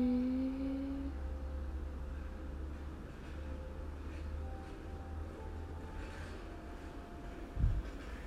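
A school chime rings faintly in the morning as school has resumed, in long, sustained tones, a low note fading early and higher notes drifting on, barely rising above a steady low background rumble, with no voices.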